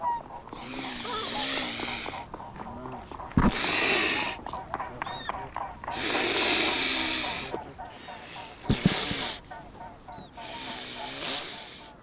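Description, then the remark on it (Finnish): Mute swans on the shore at Seurasaari in Helsinki give a series of hoarse, nasal honking and snorting calls in repeated bursts, some loud and harsh, others softer and grunting, with brief quieter pauses between them. “Tämä äänite on Helsingin Seurasaaresta viime vuodelta ja hiukan hankalaa siinä oli rannalla istuskella.”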